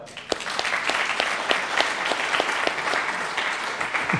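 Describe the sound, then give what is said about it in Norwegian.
An audience applauds a woman steadily, a dense wash of many hands clapping with a few sharper individual claps standing out, sustained at an even loudness throughout. “Så jeg har lyst til å gi henne en applaus her i dag.”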